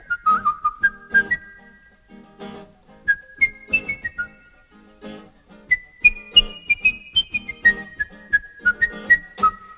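A calypso song opens with a bright whistled melody over steady, bouncy percussion and plucked rhythm, playing clearly at moderate volume with no singing yet.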